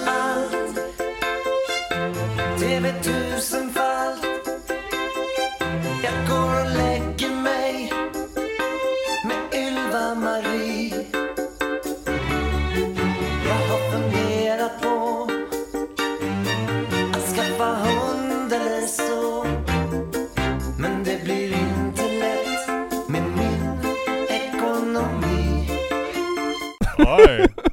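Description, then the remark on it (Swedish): A Swedish-language song with a male voice singing over full backing music plays steadily for nearly half a minute at a constant, fairly loud level, ending with a brief louder burst. “någon av dem sjunger Jag brukar se på allt”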